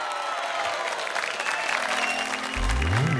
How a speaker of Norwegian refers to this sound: Åh, det her var da skikkelig hyggelig! Jeg syns vi fortjener en applaus, alle sammen.